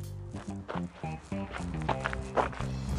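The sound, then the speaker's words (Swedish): Footsteps crunch over gravel at a steady walking pace as a person walks a dog, fairly loud, each step a gritty scrape, with a low droning hum running underneath. “Och gå i grus, lyssna,”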